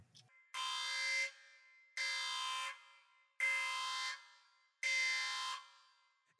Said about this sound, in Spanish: Entonces, vamos a la alarma, para la alarma porque vamos con spoilers, entonces para la gente que no la ha visto, vayan a ver la película y luego pues, regresan acá con nosotros, mientras tanto, ahí va la alarma.